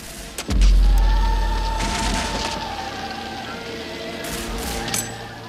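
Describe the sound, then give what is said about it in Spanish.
A heavy boom opens into a deep sustained rumble, with scattered cracks and bursts of gunfire and crashing debris over a steady, sustained musical tone, from a film battle scene: the Ave Maria sounds alongside screams, gunshots and flames consuming a Jesuit mission. “La disonancia de la guerra, después suena el Ave María y a la par los ruidos propios de la escena, gritos, disparos el sonido de las llamas que están consumiendo la misión.”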